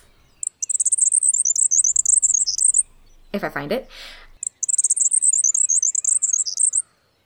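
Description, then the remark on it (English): A grasshopper sparrow's flight song, given while flying: a long, rapid jumble of high, thin buzzy chips and trills, clear, briefly interrupted by a short spoken phrase before the twittering resumes. “It's kind of a, a robot sound.”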